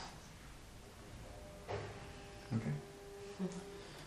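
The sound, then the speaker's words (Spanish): A door being opened: a few short clunks and rattles of the latch and handle, spaced about a second apart, over a low background hum. “cada vez se nos adelanta, ¿no? Con abrir la puerta.”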